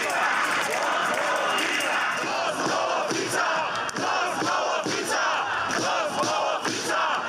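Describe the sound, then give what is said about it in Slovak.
Thousands of protesters on Námestie slobody (Freedom Square) in Košice chant and shout in unison against the government's moves, loud and sustained, with rhythmic surges of voices carrying across the open square throughout. “Na námestí Slobody sa opätovne stretli tisícky ľudí, aby vyjadrili svoj postoj voči krokom vlády.”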